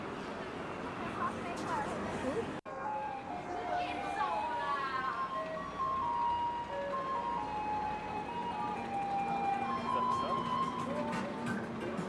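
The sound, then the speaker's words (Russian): A garbage truck in the city of Taipei, Taiwan, on a weekend plays its tinkly electronic melody, a steady chime-like tune of mid-high notes that repeats over continuous street and traffic noise, with a brief cut just before it begins. “нас ви- везде встречает э, и ждет звук мусорной машины.”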